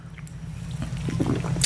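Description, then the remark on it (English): A short pour of a shot of Bacardi rum into a small glass: a soft, gurgling trickle builds over a steady low hum, ending with a brief bright clink. “Give us a shot of Bacardi.”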